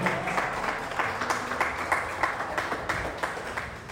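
An audience applauds to God during a sermon, a dense, steady wash of many hands clapping with faint rhythmic accents, moderately loud and filling the space, with no one speaking over it.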